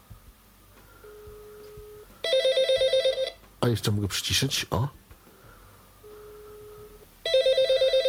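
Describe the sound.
A Derby 150N telephone rings at its loudest volume in two bursts of rapid, warbling electronic trills, each preceded by a steady low tone, with a person speaking briefly between the rings.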